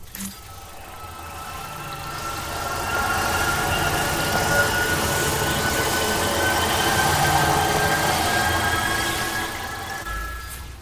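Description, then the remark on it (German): A video game healing effect that plays when a character heals someone, its tone changing with the healed character's HP percentage: a sustained, layered high-pitched tone that swells steadily in intensity for several seconds, holds, then eases off slightly. No one speaks. “und zwar wenn sie jemanden heilt, ähm, dann kommt da ein Ton und der wird immer intensiver und der verändert sich abhängig von der Prozentzahl, sag ich mal, an HP, die der Charakter hat, den ich gerade heile.”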